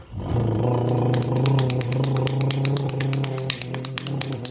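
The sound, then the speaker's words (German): A hand-slapped drumroll: rapid, sharp taps rattle along over a steady low humming drone, starting after a brief pause and continuing unevenly to the end. The drumroll is played just before winners of a randomized draw are announced. “Trommelwirbel.”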